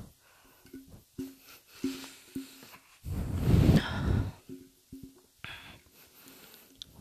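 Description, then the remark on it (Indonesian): Heavy, rapid breathing from a person out of breath after talking at length, with short rhythmic breaths, rising into a loud, long gasping exhale midway, then settling back into quick panting, with no talking. “ngebahas lama-lama tuh ini gue ngomong gitu gue rasa anjing cepet banget kayaknya udah ngos-ngosan mulu lagi gue aneh betul gue”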